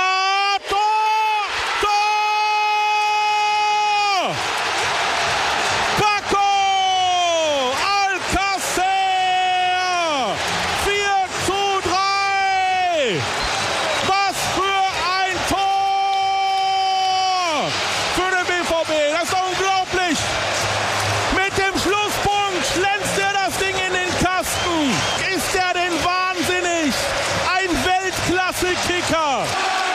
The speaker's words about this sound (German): Die Zuschauergeräusche im Hintergrund.